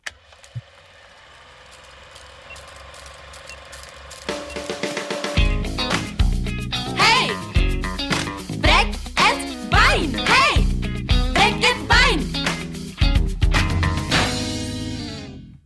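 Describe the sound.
An intro jingle begins with faint ticking, ratchet-like clicks that swell over a few seconds, then bursts into a loud, punchy rhythmic tune with bright, voice-like melodic swoops, ending abruptly.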